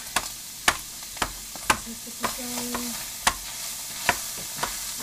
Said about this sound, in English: I am chopping the mushrooms in case you guys aren't hearing that.